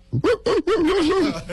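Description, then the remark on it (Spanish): A voice imitates a dog, giving two quick, loud barks and then a longer, wavering whine-like howl. It is clear, with nothing else behind it. “No, eso es un perro, Pinky.”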